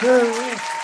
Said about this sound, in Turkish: Alkış sesi bitince konuşacağım çünkü her defasında benim sesim o zaman çok kısılıyor.